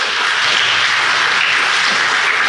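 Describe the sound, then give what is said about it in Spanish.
A large crowd applauds loudly and steadily in praise of the Lord, a dense wash of many hands clapping at once with no individual claps standing out and no voices on top. “Entonces, dale un aplauso al Señor por esto.”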